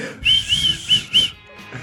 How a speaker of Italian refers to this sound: Quando fischio esce, fischio stonato.